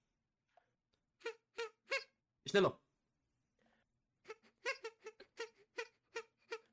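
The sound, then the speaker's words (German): Short, high squeaky blasts blown in quick succession, a few at first, then a longer rapid volley like toy gunfire, with one brief spoken word between them. “Oh Gott, Schmuckwaffen würden solche Geräusche machen. Puste da mal in so, in so ganz kurzen Abständen rein.”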